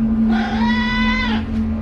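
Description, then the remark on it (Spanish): A single drawn-out cat meow, about a second long, rising at the start and holding a steady, nasal tone that sounds a bit like "mamá," over a low constant hum. “Juzguen ustedes, ¿dijo mamá o no dijo mamá el gato?”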